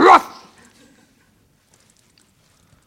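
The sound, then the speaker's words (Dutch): A dog, excited at a reunion, lets out one sharp, excited yelping bark, followed by a brief whine of joy that fades into near silence with only faint rustling. “Hij jankt van blijdschap.”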